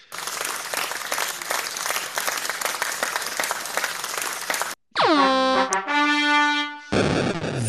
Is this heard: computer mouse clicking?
no